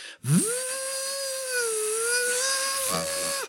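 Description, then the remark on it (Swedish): A motorboat engine revs up quickly into a high, tonal whine and holds it steadily for a few seconds, loud, with slight wavering in pitch before cutting off, out on mirror-smooth water on a calm summer evening with no wind. “Ni noterar ju det, det är svårt att inte märka det, för när den börjar gasa på då märks det liksom till och med vattenytan, som det är helt kav, lugn sommarkväll nu.”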